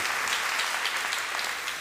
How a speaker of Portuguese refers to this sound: Vale a pena dar uma salva de palmas, desculpa, mas vamos mudar. A Bíblia merece.